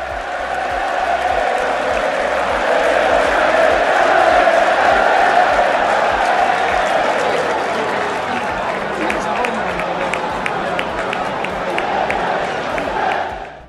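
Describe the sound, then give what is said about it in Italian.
A dense football stadium crowd of Lecce fans roars and cheers continuously after Lecce scores to lead Brescia 1-0, a loud sustained wall of voices with whoops and shouts rising through it, later joined by scattered claps. “Una cascata di tifosi si rivolta a ridosso delle inferriate, che separano il campo dagli spalti, per abbracciare quella squadra che sta regalando un sogno a una città, Lecce, a una terra”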